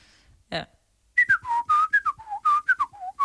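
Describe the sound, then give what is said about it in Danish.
A person whistles the Nokia ringtone melody, a quick run of about a dozen bright notes in a lilting rhythm, preceded by a short breathy puff. “Og jeg tror, jeg, tror, jeg fløjter den.”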